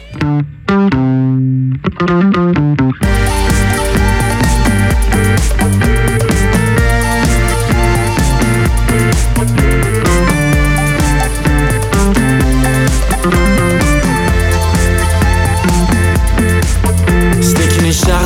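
A song plays loud and full, opening with a few seconds of sparse guitar-like notes before a dense band kicks in with distorted guitars, bass and steady drums throughout.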